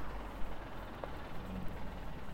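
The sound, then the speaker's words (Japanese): A steady, low rumble of car noise from outside, faint, hums continuously with no voices over it. “この車の音とかも入ってるんですかね結構”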